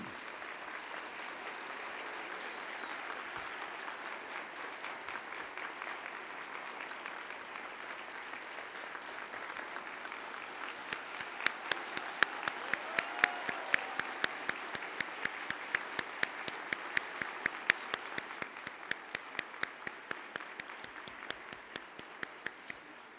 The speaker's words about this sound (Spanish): Por favor, que ese aplauso se extienda a la señora excelente